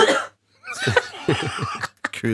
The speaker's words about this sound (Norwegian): Var det hosten min? Ja. Å ja, beklager.